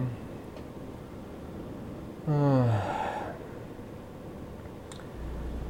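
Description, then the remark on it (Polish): A single voiced yawn: a falling, drawn-out vocal tone that trails off into a breathy exhale, lasting about a second against a quiet background with no talking. “I tak jak dzieci nieraz chętnie zasypiają, ja też jak sobie jadę ciężarówką, to a jestem troszkę chociaż zmęczony, to gdzieś takim, taką mam tendencję do do ziewania, prawda?”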